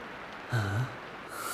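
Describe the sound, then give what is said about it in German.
A faint, steady hiss of a sprinkler system spraying artificial rain in a tropical rainforest area, briefly interrupted by a low, snort-like rumble, then the spray grows slightly brighter and louder at the end. “Wenn es auch nur auf der Sprinkleranlage ist.”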